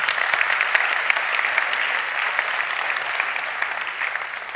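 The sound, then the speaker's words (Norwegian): Sustained applause from an audience giving the staff a round of applause for a fantastic job. A dense, steady patter of many hands claps at an even level throughout, with no voices standing out above it. “Vi gir staben en skikkelig applaus for en fantastisk jobb.”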